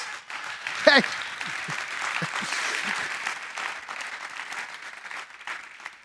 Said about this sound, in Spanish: Un aplauso a Cristo Jesús.